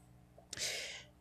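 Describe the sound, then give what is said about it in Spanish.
A single breathy yawn from a person who keeps yawning, a sharp intake of air that swells into a long, airy exhale lasting about half a second, with no talking. “pero igual dice que disculpen en serio quiero dejar de bostezar pero no puedo”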